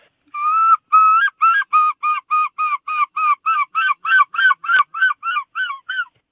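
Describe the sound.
A voice imitates a herring gull's long call: one drawn-out opening note, then a quick series of about fifteen loud, nasal, yelping cries in steady rhythm, clear with no talking.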